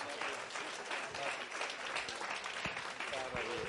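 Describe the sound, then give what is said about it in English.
A crowd claps steadily for an evangelist, a dense wash of many hands sustained throughout, with a faint murmur of voices mixed underneath. “Let's give it up for my dear friend”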